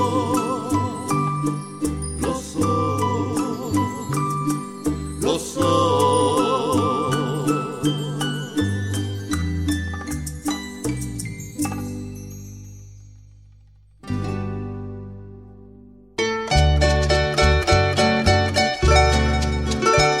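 Romantic trio music carried by steadily plucked guitars in a lilting rhythm, loud and continuous, with a brief drop to a softer held passage before the strumming returns.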